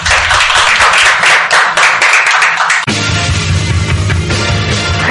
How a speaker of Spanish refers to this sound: Gracias por participar hoy en nuestro programa. Le damos un fuerte aplauso a nuestros invitados.